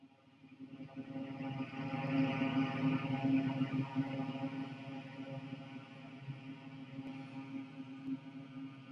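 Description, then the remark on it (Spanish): Recorded electric fan noise played from a sound machine: a steady low motor hum and a broad airy rush, constant throughout and fairly loud, with no one talking. “Que tiene también, esto tiene diferentes tipos de ventiladores.”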